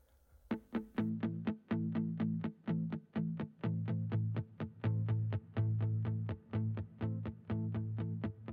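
A rock cover song opens with heavily distorted electric guitar chugging in a fast, steady rhythm over a low bass drone. It is loud, with no vocals yet.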